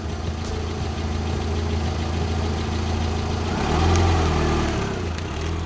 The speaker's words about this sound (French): Le vrombissement poussiéreux d'un SUV noir, dont s'extrait bientôt un quadragénaire en costard visiblement chiffonné par le spectacle pourtant grandiose de votre ZAD sauvage.